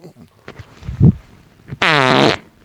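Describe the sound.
A voice makes a wet, sputtering fart imitation: a low blurt followed by a loud, buzzing, harmonic raspberry lasting about half a second, prominent, with faint breathy sounds before it.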